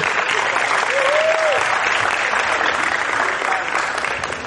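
A crowd applauds steadily for a guest being introduced, dense overlapping clapping sustained at an even loudness throughout, with a brief whistle-like tone rising above the noise partway through.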